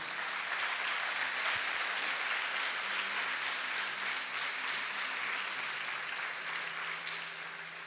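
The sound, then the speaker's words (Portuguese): A church audience applauds for Jesus in a steady, dense wash of clapping that holds at an even, fairly loud level for several seconds, with a faint low hum underneath and no speech. “Dá uma salva de palmas para Jesus, amado.”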